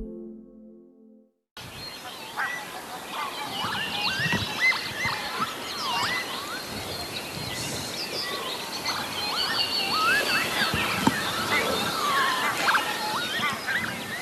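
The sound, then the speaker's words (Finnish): An outdoor morning chorus at Lake Hyvelejärvi in Lohja at about half past eight, with many birds chirping and singing over a soft, steady background hush, no talking. “Lohjan Hyvelejärven aamu kuulostaa tällä hetkellä puoli yhdeksältä tältä.”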